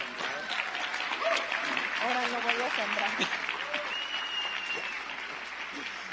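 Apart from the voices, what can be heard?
audience applause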